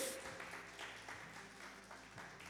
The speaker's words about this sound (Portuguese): Vamos aplaudir o Senhor porque Ele é bom. Glória a Deus.